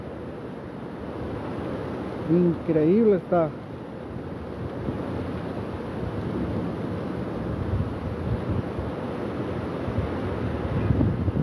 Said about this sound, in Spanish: Vea cómo va, no, me puedo acercar más, pero va increíble el arroyo de la Tecnológico. Allá se puede ver al fondo.